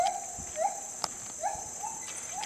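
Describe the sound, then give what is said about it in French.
A gibbon gives a series of short, rising whooping notes at a steady pace, moderately loud, over a constant high insect drone in the background. “Là par contre, euh, oui, c'est un singe. Et si vous avez la race, euh, c'est fort. Le gibbon.”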